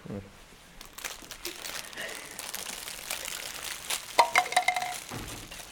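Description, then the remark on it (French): Steady crinkling of plastic wrappers as middle-school girls eat madeleines, rustling almost continuously, with a louder burst of crackly crumpling near the end and faint background chatter. “Pendant que nos collégiennes mangeaient leur madeleine, … leur a lu un extrait de son roman.”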